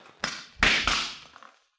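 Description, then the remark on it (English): A hammer pounds nails in three sharp, uneven blows, the second and third coming close together, each strike leaving a bright metallic ring that fades slowly. No one speaks. “Uh, why don't you hold that hammer nearer the end?”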